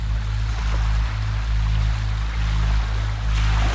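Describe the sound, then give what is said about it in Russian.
Steady wind and ocean waves wash along a coast in a continuous, fairly loud roar with a deep rumbling undertone, and no one speaks. “Наслаждайтесь ветром и волнами.”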